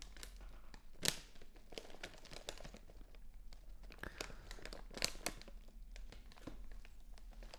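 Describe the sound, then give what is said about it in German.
Soft crinkling of a plastic chip bag, with irregular bursts of crackle and rustle as it is handled and a few sharper crunches, no voices. “Jetzt konzentriere dich voll und ganz auf das Geräusch. Dieses herrliche Knistern.”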